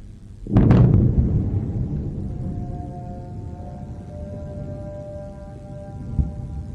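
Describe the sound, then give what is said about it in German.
A single loud explosion booms out, then fades into a long, low rolling rumble lasting several seconds, with faint sustained tones drifting in the background. “really just striking the video with the silence and the sounds like prayer or call to prayer coming from presumably a mosque, and then periodic loud explosions and flashes.”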